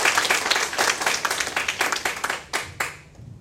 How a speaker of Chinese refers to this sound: 想要借助各位的掌声，感谢以上我想要感谢的人。谢谢。